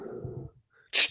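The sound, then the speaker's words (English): A dog snuffles low, goes quiet briefly, then lets out one sharp, hissing snort like a sneeze. “I don't know what I'm going to do about that dog.”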